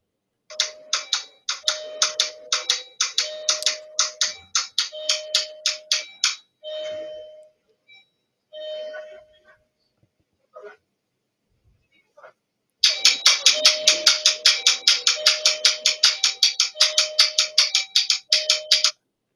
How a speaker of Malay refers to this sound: aku nak kau dengar Ooh. macam mana dia picit doorbell aku jam 3 pagi